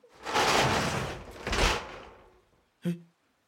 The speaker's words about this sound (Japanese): 僕は靴を脱ぐとバスルームの方へと走りました大丈夫ですかどうしましたあのドア開けますよ